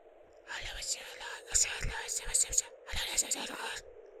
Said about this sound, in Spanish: Ruidos, voces susurrando. Se escuchaba como si … platicara con alguien.